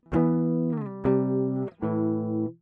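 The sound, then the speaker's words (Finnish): Three strummed guitar chords ring out one after another, each sustained for under a second, forming a short progression. The guitar sounds slightly out of tune, clear with no voices. “Vähän epävireisellä kitaralla.”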